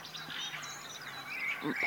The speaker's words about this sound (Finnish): kuinka kauan tämä hanhien taustakuoro täällä esiintyy?